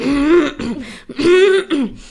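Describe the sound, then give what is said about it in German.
A voice imitates throat clearing twice in a row, two loud, rough vocal bursts separated by a short pause, with no speech around them. “und du hast nicht alle Räusperer raus. Es ist auch mittendrin so,”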